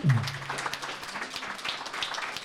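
An audience breaks into steady applause, many overlapping claps forming a dense, even patter for a couple of seconds, with a brief low vocal sound at the very start.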